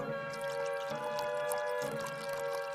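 Whisky poured steadily into a glass, a continuous gurgling stream with a bright ringing tone from the glass, lasting a few seconds with no voices.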